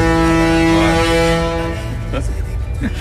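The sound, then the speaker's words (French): A ship's foghorn sounds one long, loud, deep blast with a buzzing harmonic tone. It holds for about a second and a half, then fades as voices come in. “On peut se remettre un petit peu de corne de brune, ça me fait plaisir.”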